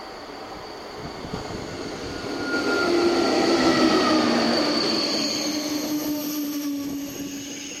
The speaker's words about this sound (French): Voie 1, éloignez-vous de la bordure du quai. Le TGV numéro 3, en provenance de l'île Flandre et à destination de Bordeaux-Saint-Jean entre en gare.